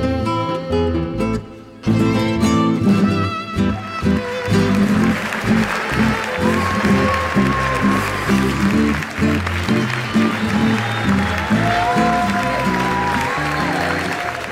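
A song ends on a held note and an audience breaks into loud, sustained applause that keeps going steadily, with a few voices calling out over the clapping.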